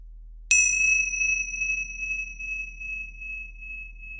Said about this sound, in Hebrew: כפי שהיה עד עכשיו, אנחנו מתחילים ומסיימים את התרגול עם uh, צליל uh, אקזוטי של uh, מצילות. אני מצילה בהן פעם אחת לתחילת התרגול ושלוש כשאנחנו מסיימים. ואפשר כבר uh, לתת לצליל הזה להיות uh, סוג של uh, מגלשה לתוך התרגול.